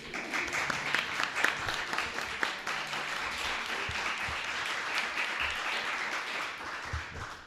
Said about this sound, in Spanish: Pero qué maravilla, un aplauso para vosotros.